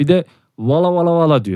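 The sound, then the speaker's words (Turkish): A voice imitates a car horn with a sustained, steady-pitched nasal vocalization lasting under a second, right after a short spoken phrase. It is fairly loud. “Korna sesi mi bu? Korna sesiymiş.”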